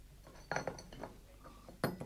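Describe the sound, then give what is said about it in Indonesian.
Cups and a spoon clink together a few times in an irregular pattern as tea is being made, each knock giving a short bright ring that fades quickly, with no talking. “Is she making tea?”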